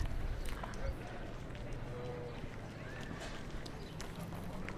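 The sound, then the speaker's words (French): Someone drags a metal chair across gravel in the Jardin du Luxembourg, scraping and grinding, with a few brief squealing drags amid crunching footsteps and a busy outdoor murmur of voices. “Là, ce qu'on entend, je le vois pas, mais je sais ce que c'est quelqu'un qui tire une chaise en métal.”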